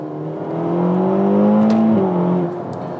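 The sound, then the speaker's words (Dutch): A Ferrari GTC4Lusso T sports car engine revs up with a rising, strained harmonic whine, climbing in pitch as it accelerates, then briefly dips and pulls again, loud with a steady rumbling underneath. “dat klinkt goed, water. Eh, Wouter. Ja. GTC Quattro Luso T.”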